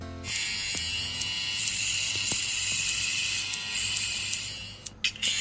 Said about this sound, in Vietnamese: À vâng, à, các bạn có nghe thấy điều gì không? Các bạn trẻ của tiệm cắt tóc Phong BVB gọi đó là âm thanh của hạnh phúc. Các bạn thân mến, đó là âm thanh các bạn trẻ đang cắt tóc miễn phí cho những người nghèo tại Hà Nội.